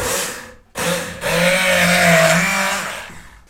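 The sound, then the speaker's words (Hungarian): A loud immersion blender whirs, cuts out for a moment, then runs steadily, its motor pitch dipping and straining as it churns through a thick mixture containing lemon juice, blended without added water into a jar-sized homemade elixir. “Szerintem ne öntsük fel, mert most a citrom lé most fog előbudjani, amikor a turmixolás következik, és sűrűnek tűnik most így elsőre.”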